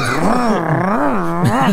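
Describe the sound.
A voice imitates a motorcycle engine: a continuous buzzing, growling drone, loud, its pitch rising and falling like revving over nearly two seconds.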